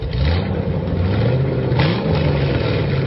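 A car engine rumbles steadily, its low hum rising and dipping slightly as it revs, loud and continuous throughout with no voices.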